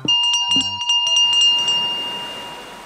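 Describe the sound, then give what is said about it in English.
A bronze ship's bell, the third of three bells tried, clangs several times in quick succession, its bright metallic tone then ringing on and slowly fading away. No voices. “Bell number three, please.”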